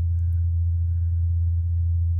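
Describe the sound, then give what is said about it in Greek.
A steady, low-pitched drone of the Mars helicopter's rotor, recorded on Mars by the Perseverance rover, continuous and unchanging for the whole stretch, with a faint hiss above it and no voices. “το Perseverance θα προσπαθήσει να πιάσει περισσότερο ήχο του ελικοπτέρου σε μελλοντικές πτήσεις.”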